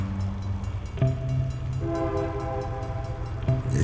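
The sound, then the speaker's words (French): A freight train rumbles past with a deep, steady low roar and sustained horn-like tones, sharp metallic clanks marking moments along the way, its sound echoing across a lake. “Et avec le lac, c'est écho. Fait que c'est sûr que tu l'entends très, très, très bien.”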